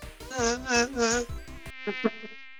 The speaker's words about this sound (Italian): La tua città è come una giungla, piena di eh, zanzare. Eccolo di nuovo.